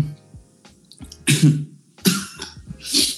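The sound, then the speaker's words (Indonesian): Three harsh coughs in a row, each a sudden loud burst with a raspy tail, spaced about a second apart with brief quiet between them. “Acara ini disponsori Coca-Cola yang menyebabkan aku batuk.”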